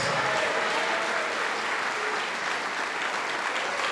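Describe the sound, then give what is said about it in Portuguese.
A church audience applauding steadily, a dense, continuous wash of many hands clapping at an even loudness throughout, with no one speaking over it. “Vamos nos alegrar, igreja. Vamos aplaudir mais.”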